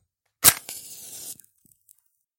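A sharp scrape and crackling flare as a match is struck against a matchbox, followed by a brief soft fizzing hiss of the flame catching, fairly loud, with no talking.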